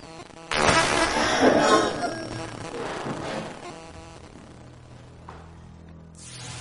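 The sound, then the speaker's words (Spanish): Harsh, crackling electrical static in a hospital with no electrical power bursts in after half a second. It is loudest for the first couple of seconds, then thins into a softer buzzing hiss before briefly flaring again at the end. “Esta estática no puede ser provocada por las instalaciones del lugar, ya que en el hospital no hay energía eléctrica.”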